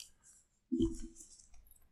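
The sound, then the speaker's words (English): Small red dice with white numbers click and rattle softly as they are wiped down, a brief cluster of light taps and a muffled knock, then faint scattered ticks trailing off. “And I'm wiping them down. I got these little red dice with the white numbers.”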